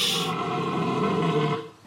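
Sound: red deer stag bellowing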